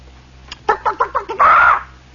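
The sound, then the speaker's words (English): A person imitates a chicken over a two-way PA intercom system: a quick run of about six clipped clucks, then a drawn-out, squawking 'bawk' to finish. The voice is loud, with no other talking. “We had a two-way PA system, you know, it's an intercom system, and you'd hear somebody go the sound of the eternal chicken, which uh, is a kind of an eternal sound in the RVC, does not refer to eggs, friends.”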